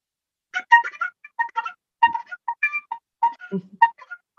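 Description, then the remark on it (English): A brassy bugle call with quick, clipped notes in a bouncy rhythm, a bugler sounding reveille, played clearly with no voices. “You know, you're probably more familiar with the, the current day reveille by the bugler.”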